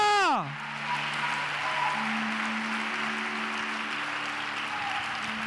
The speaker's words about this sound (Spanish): Aleluya. Vamos a dar ese aplauso a Él. Alábelo. Oh, gloria.